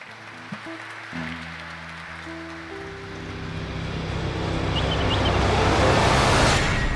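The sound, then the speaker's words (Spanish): An audience applauds a musician as he is introduced, building steadily from a quiet start into a dense, crackling wash of clapping that grows louder toward the end, with a low humming tone fading out in the first few seconds. “Un aplauso, por favor.”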